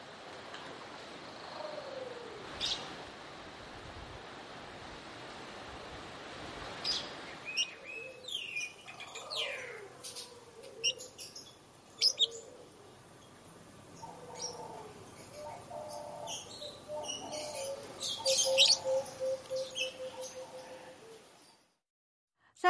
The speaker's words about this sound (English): We leave you this Sunday on the far shores of Lake Eyasi in northern Tanzania, home to the aptly named Fisher's Lovebirds.